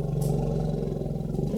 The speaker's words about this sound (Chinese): 这是大象的叫声。大象是很聪明的大型动物，它们会用一种很低沉、很明显、轰隆的噪音，